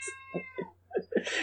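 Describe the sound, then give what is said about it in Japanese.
A cat meows several times in quick succession, short insistent calls with a slightly strained, rising tone, with a steady low hum in the background and no one talking. “猫が鳴いた猫です。”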